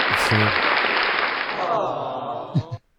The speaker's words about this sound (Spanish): Ah, el par de galanes de esa barra más un aplauso para ese par de tipos, siempre están tirando líneas